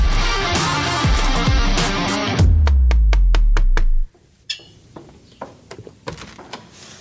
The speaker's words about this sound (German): Wer klopft denn da an dieser Tür? So, wir können sagen, das war nicht abgesprochen, meine sehr verehrten Damen und Herren.